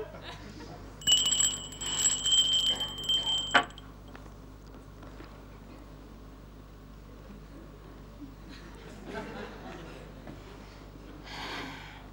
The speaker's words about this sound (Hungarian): Nem kérdezi meg, hogy miért csengett? De igen, miért csengetett?